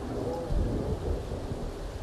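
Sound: thunder rumbling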